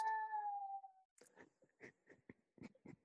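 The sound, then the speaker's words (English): A baby makes a high, drawn-out squeal that slides downward, then a string of short, soft babbling sounds, fairly quiet. “so there's a little baby noise, so you're gonna have to excuse that on the podcast.”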